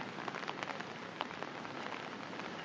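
Steady rain patters on an umbrella held by someone walking in the rain, a dense, continuous hiss broken by scattered sharper drops tapping. No one speaks; the rainfall carries on evenly throughout.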